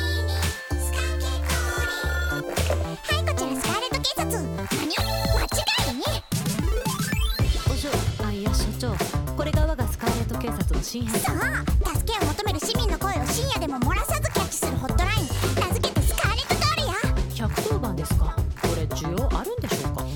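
An upbeat, densely layered pop song plays loud and nonstop, with bright electronic synths, punchy beats and what sounds like sung vocals, plus ringing, phone-like synth tones near the start.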